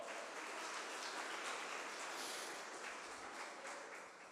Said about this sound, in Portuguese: Aleluia! Aplauda o Senhor Jesus Cristo bem alto!